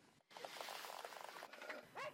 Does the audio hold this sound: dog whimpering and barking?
yes